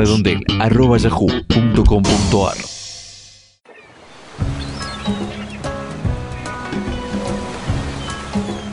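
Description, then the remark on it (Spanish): A jingle-like stretch fades out, then a steady wash of sea surf rolls in, a continuous broad rushing with faint voices and tonal sounds layered over it. “Este verano te gustaría vivirlo así, junto al mar, con emoción.”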